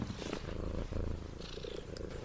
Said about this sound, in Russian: Кстати, интересно, а слышно, как мурчит мой котик?